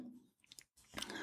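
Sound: dog grunting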